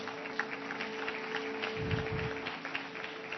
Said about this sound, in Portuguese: Dá para aplaudir a Deus aqui, igreja?